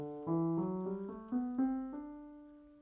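A D mixolydian scale played note by note on a pitched instrument, about seven clear, evenly paced tones stepping through the scale, each ringing into the next, with no talking.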